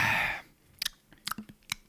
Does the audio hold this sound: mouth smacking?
yes